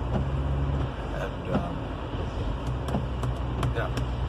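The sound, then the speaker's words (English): A steady, continuous rumble of road noise inside a moving car, with a deep low hum throughout and a few faint clicks and ticks scattered over it. “People, I don't like necessarily sitting in the car for this long, but I get a lot of solitude um, that I think is healthy mentally”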